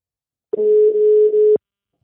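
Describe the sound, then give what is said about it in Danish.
A single steady electronic ringing tone of an outgoing phone call, lasting about a second, loud, starting and stopping abruptly with no talking around it. “og ham ringer vi til nu.”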